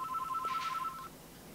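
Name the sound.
telephone ringing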